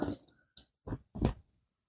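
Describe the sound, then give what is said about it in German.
A few beer bottles knock together in quick succession in a toast, sharp glassy clinks one after another with short gaps, and no voices over them. “Und so schon mal Prost. Prost alle.”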